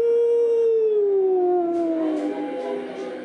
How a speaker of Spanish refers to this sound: Nuestra casa solitaria parecía sorprendentemente viva con la presencia de algún ser maligno cuya naturaleza no podíamos intuir, y cada noche aquel demoníaco aullido llegaba hasta nosotros, cada vez más claro y audible.